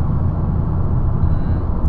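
Steady, loud low rumble of a vehicle interior while driving, a continuous engine and road drone with no breaks and no voices.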